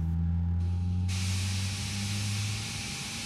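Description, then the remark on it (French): A steady low machine hum drones throughout, joined by a rising hiss like escaping steam that swells partway through and stays loud to the end; no voices. “Un ronronnement, puis quelques clics.”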